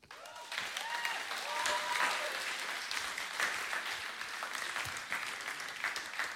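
An audience claps steadily for several seconds, a dense wash of overlapping handclaps at a moderate, even level with a few faint voices mixed in.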